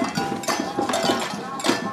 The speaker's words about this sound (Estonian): niimoodi mürsuvad trummid ja me oleme välja jõudnud meeleavaldusega ja rongkäiguga siia Tallinnasse Raekoja platsi.